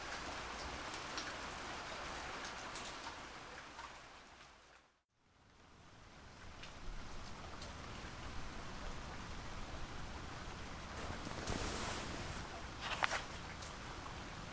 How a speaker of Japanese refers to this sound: 夜雨音に満たされた部屋ひんやりとした空気